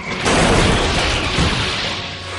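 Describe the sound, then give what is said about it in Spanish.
A heavy crashing impact with a booming low end as Sully smashes the scream extractor machine to pieces, followed by a dense burst of clattering and crunching debris that stays loud before easing off, with a second surge midway. “Haciendo uso de su inmensa fuerza, Sully consiguió desviar la aspiradora de gritos de la cara de Boo y hacerla pedazos.”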